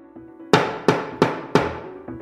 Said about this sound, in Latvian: Un tā, izsoļu āmuriem klaudzot,